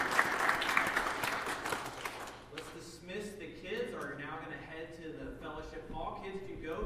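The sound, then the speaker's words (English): A large church audience bursts into loud, dense applause celebrating someone's decision to become a follower of Jesus Christ; it gradually thins out over a couple of seconds, giving way to scattered chatter and murmuring voices. “So please, let's celebrate that together as a church.”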